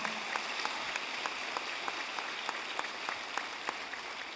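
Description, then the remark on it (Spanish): An audience gives another round of applause to the Lord, a dense crackle of many hands clapping at a fairly even level, with sharper individual claps popping out at a roughly regular beat. “Dar un aplauso más al Señor.”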